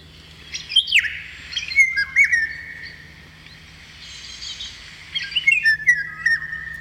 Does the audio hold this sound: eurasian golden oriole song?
yes